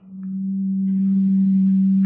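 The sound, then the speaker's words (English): A machine gives off a steady, low electrical hum that swells slightly at the start and then holds constant and fairly loud, with a faint higher whine above it and no voices. “The machine made a low humming sound that seemed to fill the room.”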